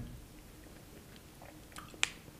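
Soft, wet chewing of gummy candy, with a sticky, squishy quality and one sharper click near the end; no talking, just quiet mouth noises.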